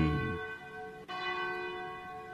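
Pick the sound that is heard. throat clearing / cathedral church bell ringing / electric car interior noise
cathedral church bell ringing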